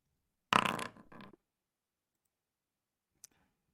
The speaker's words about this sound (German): Dann werde ich nur kurz hier auch noch kurz würfeln müssen.